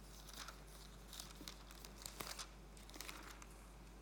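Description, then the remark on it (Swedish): Paper rustles and crinkles in a quick series of soft swishes as the pages of a book are flipped back to chapter two, verse five of a letter of Paul, with no voices. “Nu ska vi se om man kan bläddra tillbaka dit lite snabbt.”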